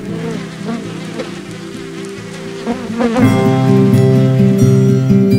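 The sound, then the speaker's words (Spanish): A beetle buzzes in flight, flying almost at sea level towards an island, with a steady, droning hum that swells noticeably louder partway through. No voices are present. “Tras varias horas surcando al aire casi a ras de mar, aterrizó en la isla”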